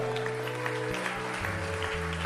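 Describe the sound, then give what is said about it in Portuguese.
A church audience applauds God after a prayer, steadily throughout, a dense wash of many hands clapping, while sustained keyboard chords shift underneath. No one speaks. “Você pode aplaudir ao Deus que trabalha por você.”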